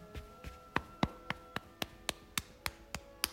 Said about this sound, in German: Fange an, mit deiner rechten Hand deinen linken Arm hoch zu klopfen. Beginne mit dem Klopfen auf dem Handrücken und klopfe dich langsam dem Oberarm bis zur Schulter hoch. Dann klopfst du den Innenarm